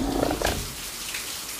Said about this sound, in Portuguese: Mano, se liga aqui. Tá chovendo. Olha, olha que barulho gostoso.